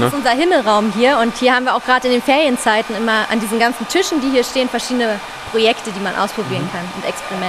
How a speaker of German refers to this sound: Ihr hört jetzt hier auch gerade einen Haartrockner im Hintergrund, sind hier auch so Experimentierstationen.